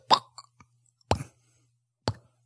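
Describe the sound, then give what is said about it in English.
A voice mimics a tennis ball being struck in a televised tennis match, with three sharp popping sounds spaced about a second apart, a faint low hum underneath and no other talk. “But like with tennis, it's just like it's really quiet. You hear.”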